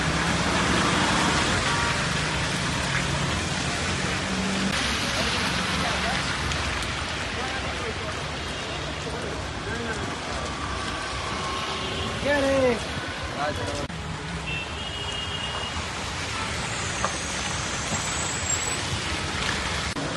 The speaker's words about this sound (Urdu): ناظرین شہر سری نگر میں گزشتہ چوبیس گھنٹوں سے موسلادھار بارشوں کا سلسلہ جاری ہے